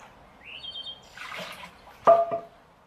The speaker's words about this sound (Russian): Бабуковая трубочка, которая набирается водой сверху капающей, и когда она слишком переполняется, то вода выливается, а трубочка ударяется и создает звук определенный.